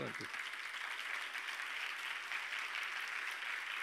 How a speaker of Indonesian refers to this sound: Silakan duduk dulu, letakkan kita sementara dan kemudian berikanlah tepuk tangan yang meriah bagi Yesus